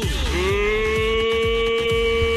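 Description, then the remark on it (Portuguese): A long, steady moo from an ox, loud, dipping in pitch at the start before holding a droning tone, with a faint rhythmic ticking underneath and no talking. The ox has bumped into a wire. “Ó, o boi bateu no, no, no arame aí.”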